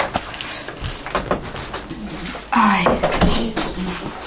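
A house door, at the third house, opens with a sudden creaking, scraping burst partway through as a pensioner with her watchdog opens it, set against a busy background of soft knocks and thuds, with faint voices.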